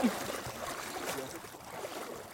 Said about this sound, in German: Und wenn es mal irgendwo keine Duschen gibt, gehen sie eben eine Runde schwimmen. Wie hier in den glasklaren Lake Wakapito.